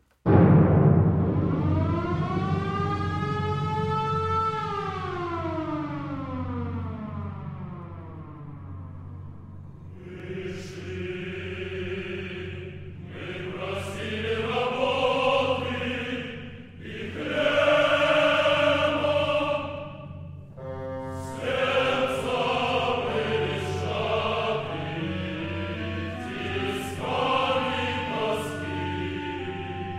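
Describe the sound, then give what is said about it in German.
A siren-like wail slides upward and then sinks, giving way to loud, blaring orchestral music from a propaganda work, built on simple, repeated chords, exaggerated and overblown in tone. No one speaks. “sehr simple Musik geschrieben, genau das, was man äh, eben von einem Propagandawerk auch erwarten darf”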